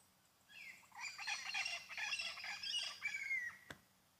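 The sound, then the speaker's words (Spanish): A parrot squawks in a raspy, chattering burst of harsh calls running for about three seconds, fairly steady, then breaks off with a brief click. “Un loro.”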